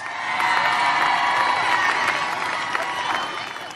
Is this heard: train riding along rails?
no